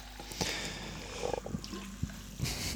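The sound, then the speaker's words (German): Home-carbonated sparkling water is poured into a drinking bottle, a steady fizzy hiss broken by a few small clinks and knocks. Moderately loud, with no talking. “Ich mache es ich mach mit Spulwasser. Ich schütte das hier mal rein.”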